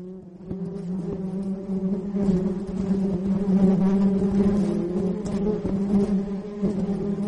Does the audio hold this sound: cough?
no